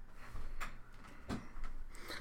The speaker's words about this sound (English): Chris, what are you doing? The chair's coming apart.